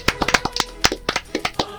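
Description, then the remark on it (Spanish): A short burst of applause from a sound effect file (Aplausos.mp3): a dozen or so sharp, uneven hand claps in quick succession, fairly loud, with no voices over them. “Un aplauso de Circon para Max. aplausosmp Aplausos.mp3.”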